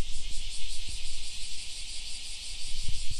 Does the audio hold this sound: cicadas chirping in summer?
yes